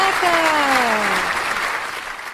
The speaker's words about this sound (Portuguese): Uma salva de palmas para as queridas cantoras da Rádio